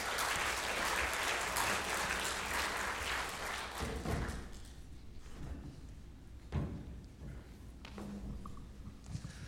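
An audience applauds loudly and steadily for a couple who will be there to pray for people, then the clapping thins out midway into scattered claps and a few dull thuds, as if people are shifting about.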